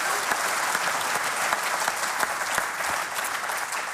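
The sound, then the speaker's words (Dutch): An audience claps steadily for the nominees of a book prize, a dense wash of many hands with crisp individual claps poking through, sustained at an even level for the full few seconds with no voices over it. “Applaus daarvoor.”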